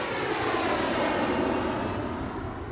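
A steady, loud jet airplane roar fills the whole stretch, a broad rushing engine drone with a faint high whine, holding constant without any voices.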